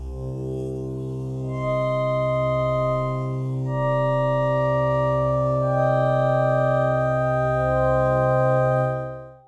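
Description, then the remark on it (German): Sustained synthesizer notes are played on a keyboard one after another from low to high with a spread setting, so low notes sound on the left and high notes on the right, stacking into a rich, steady chord that rings loudly for several seconds before fading out. “oder du willst es ein kleines bisschen breiter haben, dann gehst du auf Single Spread und alle Töne, die du auf der Tastatur tief spielst, also links, die werden auch links im Panorama wiedergegeben und alles, was du hoch spielst, rechts.”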